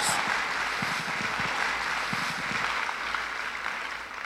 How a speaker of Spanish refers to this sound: Y si va a aplaudir, aplauda con todas sus fuerzas en el nombre de Jesús.